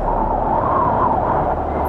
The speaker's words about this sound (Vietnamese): Ông ta đi chưa lâu Thì bất chợt bên ngoài cửa sổ Có âm thanh gió rít lên thổi mạnh